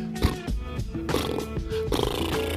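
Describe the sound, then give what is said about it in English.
A voice imitates a pull-string lawnmower starting up, sputtering in a few rough, buzzy bursts before settling into a steady growling drone, loud for a couple of seconds. “I can do uh, a lawnmower and a crotch rocket if you want to hear those.”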